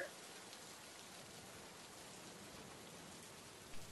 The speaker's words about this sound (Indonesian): Tidak berapa lama setelah mereka berhenti, Hujan pun turun dengan derasnya. Eh, pas banget hujan ya.